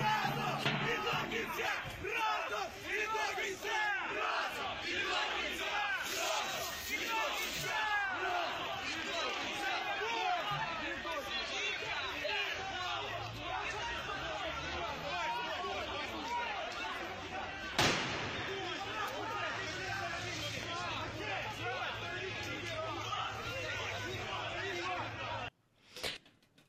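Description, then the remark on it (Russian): A dense, loud crowd of nationalist protesters outside Ukraine's parliament, the Verkhovna Rada, roars and shouts continuously while throwing smoke bombs at police and clashing with them, with overlapping yells, scattered bangs and a sharp slam near the end. “Там собрались националисты, они как раз требовали очистить а, власть от коррупции, забрасывали полицейских шашками и устраивали с ними стычки.”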